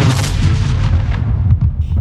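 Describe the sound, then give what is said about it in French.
Loud, rumbling blasts with heavy low-end booms that roll into each other, a dense, continuous wash of explosions with no voices, as thrown grenades go off in quick succession. “Il saisit ses grenades et les envoya vers le personnel du père Fouettard qui allait sonner l'alerte.”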